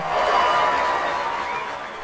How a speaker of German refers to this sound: Auf einmal fangen alle an zu schreien und klatschen. Da kommen die Mannschaften.